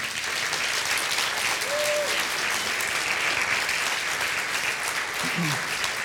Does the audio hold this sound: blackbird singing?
no